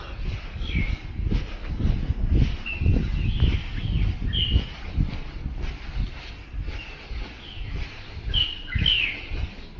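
Birds chirp and tweet repeatedly in short, high-pitched bursts over a steady rumbling, rustling background, the calls scattered irregularly across the whole stretch without any talking.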